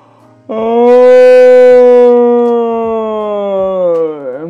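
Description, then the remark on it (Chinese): A voice imitates a little bear's long yawn: one loud, drawn-out voiced tone lasting about four seconds, sliding slowly lower in pitch and ending with a brief wavering dip. “小熊等所有的客人都买着了自己喜欢的东西，他才打一个长长的哈欠，”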